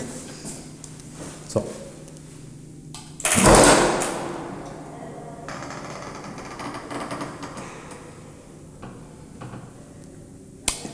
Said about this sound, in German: Da merkt man mal, was für eine krasse Varianz zwischen zwei Türen besteht. Krass, ne? Das war echt ein schönes Geräusch. Ja. ja hinten raus war es gut.